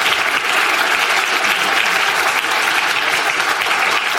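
A crowd claps steadily and continuously, a dense, loud wash of many hands with no pauses or talking over it.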